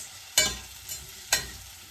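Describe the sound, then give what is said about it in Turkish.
Meat sizzles in a frying pan with a steady, bright hiss, broken by two sharp bursts of crackling spatter and a softer flare between them. No one speaks. “Ama o tarafı yağlamaya Tıs. gerek yok.”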